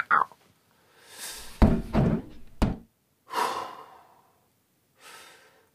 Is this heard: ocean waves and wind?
no